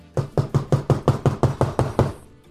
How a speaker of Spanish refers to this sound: Ya estaba en mi cuarto, yo dormí, porque era este, en, un hotel y ya me fui a mi cuarto y de repente oigo que tocan la puerta.